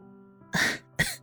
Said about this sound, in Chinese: 温之夏一愣，随即咳嗽了一声，道：